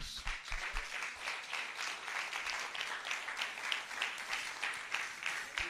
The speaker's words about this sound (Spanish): Den un aplauso a Dios.